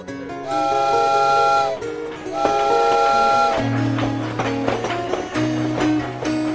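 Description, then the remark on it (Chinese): A steam train whistle sounds two long, bright blasts, then gives way to a heavy, steady rumble and rhythmic clatter of the train moving along at speed, with no voices. “火车轰隆奔驰，离开巴黎之后，视野渐渐地开阔了。”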